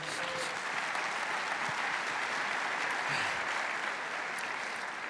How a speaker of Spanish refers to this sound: ¿Cuántos líderes de célula hay acá? ¿Cuántos líderes de célula? Levante la mano, levante la mano, hágase, démosles un fuerte aplauso a ellos. Muy bien.